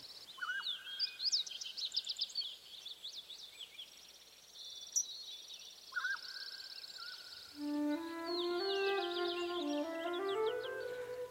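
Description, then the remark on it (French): Birdsong with bright chirps and rapid trills layered together, followed by a clearer, sustained melodic whistling that rises and falls. It is fairly loud, and no one speaks. “Les merveilleux chants des oiseaux les émotions qu'il véhicule à travers l'espace, le désir, la tendresse, la faim, la peur, la joie, cette présence aux autres qui voyage à travers les airs, cette musique qui a peut-être aussi une dimension de récit,”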